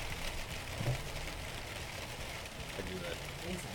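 Steady, even rain hiss fills the background, a soft continuous patter with low murmuring sounds underneath and no clear words.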